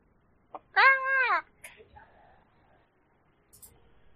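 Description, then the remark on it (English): A person voices a loud, strained squawk like a screaming chicken, one harmonic-rich wail lasting about half a second, followed by a few faint breathy noises. “From somewhere deep in your pack on your back, you hear a chicken just scream.”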